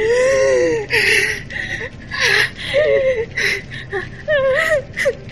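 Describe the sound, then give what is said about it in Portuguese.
A breathless, strangled, very short scream from a woman already out of breath, broken up by sharp gasps for air, with short strained vocal bursts and whimpering breaths repeating over several seconds. “Ela dá um grito e, e ela já tava sem ar, então é um grito muito curto e já.”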